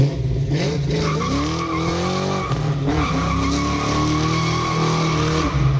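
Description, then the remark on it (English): A car with a deliberately loud exhaust roars, its engine note climbing and dropping as it revs, with a harsh, squealing edge that stays loud and unbroken throughout, no voices. “So, what's the appeal of an intentionally loud exhaust system?”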